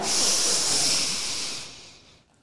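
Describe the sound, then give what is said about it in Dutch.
A single long, airy deep breath drawn in, a steady breathy hiss lasting over a second before tapering off into quiet. No one speaks. “Dan kan het zijn ah. dat je ineens voelt dat je heel diep wil inademen.”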